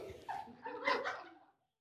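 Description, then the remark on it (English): A small dog, likely a puppy, lets out a short run of high-pitched yapping barks lasting about a second and a half, with no voices. “We got a Christian puppy.”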